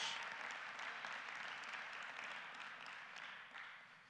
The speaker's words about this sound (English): Can somebody put your hands together and give Jesus Christ a hand clap of praise for the cross?